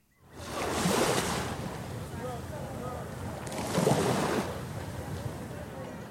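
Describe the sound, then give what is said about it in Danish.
Small waves wash onto the beach shoreline of Vejle Fjord in two soft surges a few seconds apart, over a steady hiss of water and light wind, with faint calls in between. “der er på stranden med sin søn øh, ved Vejle Fjord, og hans søn på halvandet sidder og leger nede ved vandkanten.”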